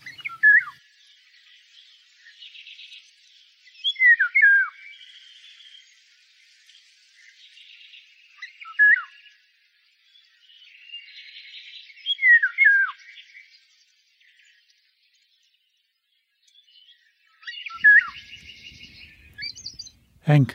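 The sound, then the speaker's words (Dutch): Golden oriole song: short, fluty whistled phrases repeated about five times at intervals of a few seconds, each a quick liquid yodel with some buzzier notes, clear against near silence. “om naar zijn verhaal te luisteren achter het geluid van de Wiedewaal.”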